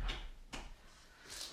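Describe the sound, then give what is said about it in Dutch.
A door at home is pushed a little further shut: a soft bump, a quick knock with a low thud, then a faint brushing scrape as it settles. No one speaks. “Ik doe heel even hier nog mijn deur iets meer dicht.”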